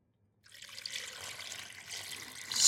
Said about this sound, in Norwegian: Det har jeg gjort, så nå tar jeg mandlene her, tar jeg det oppi denne blenderen. Oppi sånn. Ja. Så tar jeg samme kaldt vann.